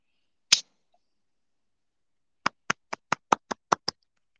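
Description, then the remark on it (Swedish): A single sharp hand clap, a pause of about two seconds, then a quick, even run of eight claps. Crisp with no talking. “Eh, klappar du? Ja, ja.”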